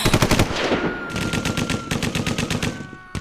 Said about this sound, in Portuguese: O filme estava quase pela metade quando Lírio invadiu o cinema, metralhando toda a plateia sem dó nem piedade